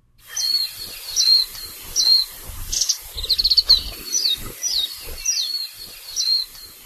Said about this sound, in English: The warbling white eye or mejiro, is a non-native bird that was first introduced to Hawaii from Japan in 1929. It is now the most common bird in all of Hawaii, occurring just about everywhere.